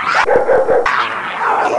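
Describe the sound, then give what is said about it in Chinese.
A pet bulldog barks to wake its owners during a house fire at a home in central Ontario, Canada: a loud, rough run of several quick woofs, then a longer, drawn-out bark with a whiny edge. No one speaks. “前两天，加拿大安大略省的中部有一户民宅发生了火灾，幸好呢，家里的斗牛犬它叫醒主人，”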